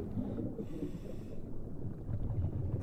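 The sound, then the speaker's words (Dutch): A dense, steady low rumble of ship traffic heard underwater, with heavy breathing and bubbling from a diver's regulator, and no voices. “Dus wat wij horen, dat is eh, scheepvaart. En voor de rest hoor je jezelf het meest eigenlijk. Dus de ademhaling, je bellenbanen, dat hoor je.”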